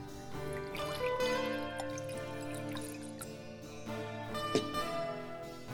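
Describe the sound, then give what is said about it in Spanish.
Two drinks are poured: liquid pours and dribbles into glasses, with small drips and a light clink near the end, set against a steady, humming tonal background. “Sirve dos tragos más. Uno es para David.”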